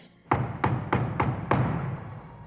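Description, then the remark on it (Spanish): Five firm knocks on the door of a family home in Macedonia, in a steady, evenly spaced rhythm, each a dull wooden thud with a sharp attack, followed by a moment of quiet. “En Macedonia, la familia de Francisco estaba comiendo pavo en su casa, cuando de pronto tocaron la puerta.”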